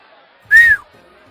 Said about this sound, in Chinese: 大家都生气起来。刚才还在欢呼的观众们顿时变了脸，还对佐罗利他们吹起了口哨，以表达不满。